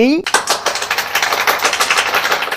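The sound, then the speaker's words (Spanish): Brisk applause from several people, a dense patter of rapid claps that holds steady for a couple of seconds. A brief rising tone comes just before it starts. “Bueno, chicos, eh, aflojen un poco con los aplausos.”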